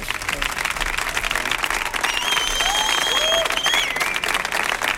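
A crowd breaks into loud, sustained applause, dense clapping filling the whole stretch, with a few whistles and cheers rising above it partway through.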